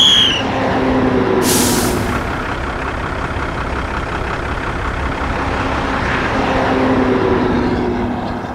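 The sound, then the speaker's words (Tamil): A bus engine rumbles and drones steadily throughout as the vehicle pulls up at the stop for Singampatti village, Ambasamudram, Tirunelveli district, with one short, sharp hiss of air brakes bursting out early on. No one speaks. “யார்மா அது சிங்கம்பட்டிக்கு டிக்கெட் வாங்கினது அடுத்த ஸ்டாப்பிங் சிங்கம்பட்டி தாம்மா என அவளது சிந்தனையை கலைத்தார் நடத்தினர்”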